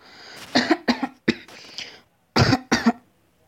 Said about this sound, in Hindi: आपको इतनी ज़ोर से खांसी क्यों हो रही है पापा